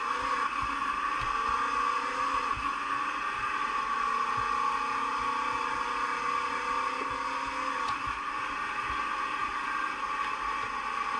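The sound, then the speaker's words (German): The engine of an old bus, started after refuelling, runs steadily and loudly: a continuous droning hum with a rough, rattling texture throughout, no voices and no pauses. “das Ding ruckelt und ich, wenn ich so das, das sehe, wo ich jetzt halt so drin sitze, also die Führerkabine, wo ich den Ausstieg, den ich sehe, denke ich, ich hocke in einem Oldtimer.”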